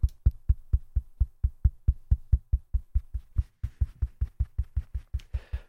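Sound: knocking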